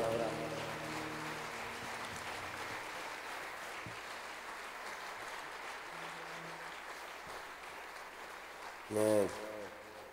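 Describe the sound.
An audience at a church service applauds the Lord for his word, a dense wash of clapping that holds for about nine seconds before a brief burst of a higher-pitched voice or cheer near the end.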